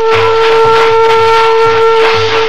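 Train brakes squeal in a loud, steady metallic whine over a rhythmic low rumble of wheels as the train slows on its approach to Laramie, with no voices.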